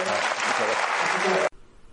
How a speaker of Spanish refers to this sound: Muchísimas gracias, de verdad. encantado. Un aplauso muy grande.